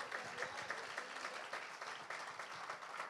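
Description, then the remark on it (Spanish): An audience claps steadily, giving an applause to Christ, a dense wash of many hands with brief sharper peaks, holding at an even, moderate loudness throughout with no voices standing out. “Démosle un aplauso a Cristo.”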